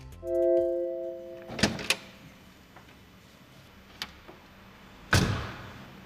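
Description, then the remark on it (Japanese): The butterfly door of a Maserati MC20 sports car opens: a brief electronic tone, then two sharp latch clicks, a couple of soft mechanical ticks, and a firm thunk as it finishes. “さあ MC20 のバタフライドアを開いてみましょう”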